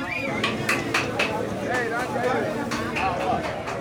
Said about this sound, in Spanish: Sería muy bueno que ustedes escucharan los sonidos del el mercado popular de Basurto.